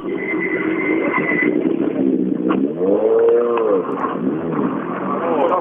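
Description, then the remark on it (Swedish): A rally car's engine roars and revs on a forest stage at Lången, its pitch sweeping up and down in a few quick surges as it drives past, loud and continuous over a rumbling background. “För en bakhjulsdriven bil straffas den här inne?”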